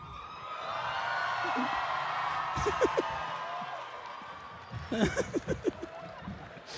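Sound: audience applause and cheering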